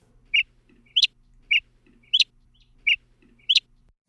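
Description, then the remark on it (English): A mockingbird alternates two otherwise identical short calls, the first imitating the long call of a northern flicker, a woodpecker, the second a non-mimicked call pitched higher, repeating the pair three times in a steady rhythm, clear with no talking. “Here's a mockingbird again playing two otherwise identical sounds but shifting the pitch.”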